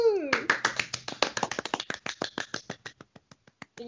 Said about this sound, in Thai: และเวลาฝัน ปรบมือ